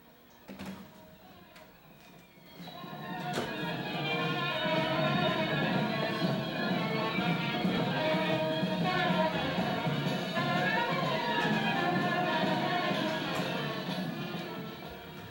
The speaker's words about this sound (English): It's a seasonal raga. It's a raga that's played always at this time of year in the fall.